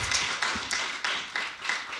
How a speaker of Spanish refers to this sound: Muchas, muchas gracias a todos ustedes y fuerte el aplauso a …, que estuvo con nosotros